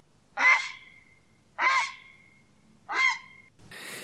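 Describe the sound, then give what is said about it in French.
Three loud, harsh, rasping croaks from a grey heron, evenly spaced just over a second apart, followed by a brief hiss of noise at the end. “Tu vas nous parler du héron. Là, en photo, je vois c'est des hérons cendrés.”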